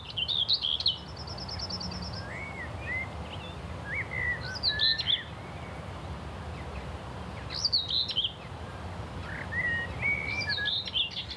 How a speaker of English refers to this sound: this magnificent thrush that was just blasting out a tune.